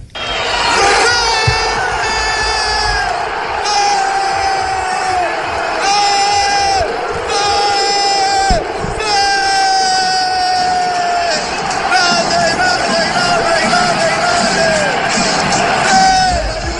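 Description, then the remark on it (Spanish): A packed stadium crowd at a Juventus match roars in celebration of a penalty goal scored by Cristiano Ronaldo, loud and continuous, with long, drawn-out shouts rising and falling over the dense wall of cheering. “cuando todo el, Estado empieza a gritar gol, ahí es donde empieza a gritar el gol”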